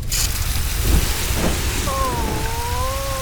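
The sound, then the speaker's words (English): The hose of a Super Fire Truck sprays water at a burning gazebo in a loud, steady hissing rush that fills the whole moment, with a thin wavering tone rising in near the end. “Now, turn on the water.”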